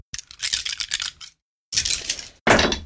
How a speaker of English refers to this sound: Roll eight damage dice.